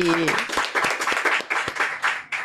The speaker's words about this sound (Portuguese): Aliás, eu quero te parabenizar, porque toda essa equipe que está aqui, gente, é uma equipe aqui enorme. Palmas para nossa equipe.